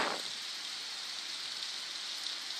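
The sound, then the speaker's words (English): Steady rain falls in a continuous, even hiss, with a brief fuller splash at the very start, then constant soft patter. No voices are present. “Rainy season.”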